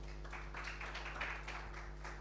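An audience applauds with a steady wash of many hands clapping for about two seconds, fairly soft, over a constant low electrical hum.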